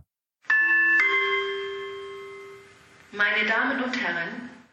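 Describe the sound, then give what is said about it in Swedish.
A two-tone electronic chime rings out clearly over a hospital's internal loudspeaker system, its tones sustaining and fading before a voice begins speaking over the loudspeaker. “Då hördes plötsligt en röst i sjukhusets interna högtalarsystem.”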